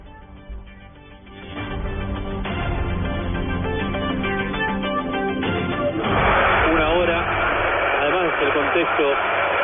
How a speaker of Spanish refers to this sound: Escuchemos la ovación para el colombiano al momento de su sustitución.